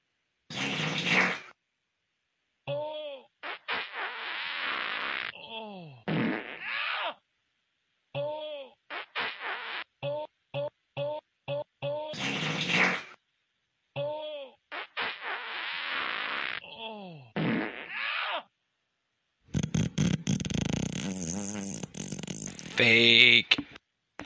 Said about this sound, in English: Oh God, you can hear at the end of him this guy struggling. You can hear him go. Ugh! Ugh! You hear him?